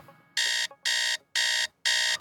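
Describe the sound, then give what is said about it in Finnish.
A morning wake-up alarm clock rings in four loud, evenly spaced electronic beeps, each lasting about a third of a second, clear with short gaps between them. “Oh, oi, oi, herätys.”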